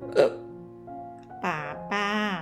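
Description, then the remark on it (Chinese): A voice imitates the frightened hiccups of the character 小雷公: a short sharp burst followed by two longer, strained voiced gulps, fairly loud and spaced apart, with nothing else underneath. “小雷公吓得说不出话来，猛打嗝，最后才勉强地说。”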